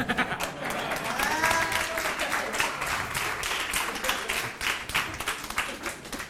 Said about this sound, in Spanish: A ver, un aplauso, por favor.